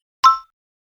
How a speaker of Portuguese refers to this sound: Repete depois do bip.